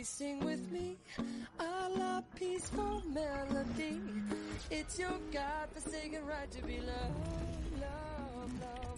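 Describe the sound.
A pop song requested by a listener plays on a radio station at full volume, a lead singer belting melodic lines over a steady band with drums and bass, the vocal sustaining long held notes throughout.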